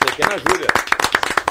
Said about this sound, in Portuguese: Uma salva de palmas. É, salva de palmas.